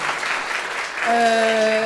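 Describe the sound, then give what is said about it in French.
An audience applauds with dense, steady clapping throughout. About halfway through, a sustained, bright musical tone enters and rings on beneath the clapping. “On l'applaudit, s'il vous plaît.”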